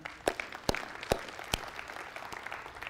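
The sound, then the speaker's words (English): An audience applauds Pastor Graham, a dense crackle of clapping with a few sharper, louder claps standing out at irregular moments. The applause is fairly soft, with no one speaking. “Can we give it up for him?”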